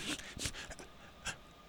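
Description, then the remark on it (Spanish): A person mimics Donald Trump's sharp, sudden intakes of breath heard over the microphone during a debate with Hillary Clinton: a few quick, hissing inhales, spaced unevenly, with no talking in between. “cuando Hillary Clinton se podía explicar algo, de pronto Trump tomaba impulso con su respiración, usted lo podía escuchar por el micrófono”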